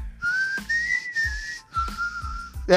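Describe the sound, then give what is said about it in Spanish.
A short tune whistled, a few sustained notes separated by brief breaks, clear and fairly loud with no talking over it. “Leí los este. libros, no venía el chiflidito incluido.”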